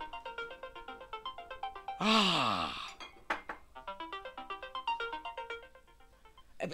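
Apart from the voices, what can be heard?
mobile phone ringtone ringing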